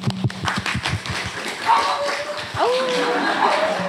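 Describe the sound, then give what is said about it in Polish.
A dog lets out a couple of short, tonal barks, following a burst of clapping and tapping, with crowd murmur and voices filling the background. “To jest pies wyszkolony w bojówkach feministycznych.”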